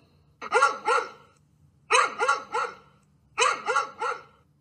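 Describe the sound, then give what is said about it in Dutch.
A dog barks in three quick bursts of about three yaps each, separated by short pauses, fairly loud over a faint low hum. “Het was het geluid van een hond.”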